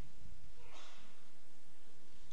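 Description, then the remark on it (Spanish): A single sharp, breathy sneeze bursts out near the start, brief and moderately loud, followed by a low, steady room hum with no talking. “Salud.”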